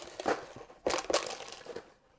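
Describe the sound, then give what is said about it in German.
A plastic bag of cookies crinkles and rustles in several short bursts, the loudest crackles coming in the middle before settling into quieter handling and then silence. “Oh, eine Tüte Kekse.”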